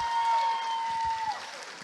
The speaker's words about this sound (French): Un petit main d'applaudissement, s'il vous plaît.